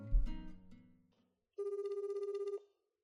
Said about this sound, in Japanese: では早速電話をかけてもらってもいいですかはいじゃあかけてみましょうかお出になるかな